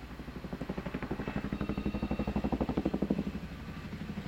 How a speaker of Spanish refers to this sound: Andamos sobrevolando en helicóptero el paso peatonal de Pitzontintla.